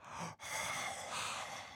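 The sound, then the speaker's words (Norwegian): Soft, airy breathing through a mouth opened as wide as possible, a long breath, a brief pause, then another drawn-out exhale, quiet with no talking. “Eh, gap opp så høyt du kan, og så puster du sånn her.”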